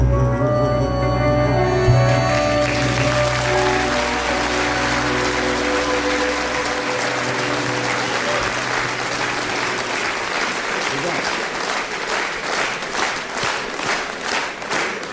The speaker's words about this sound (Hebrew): תודה, תודה. איזה מחיאות כפיים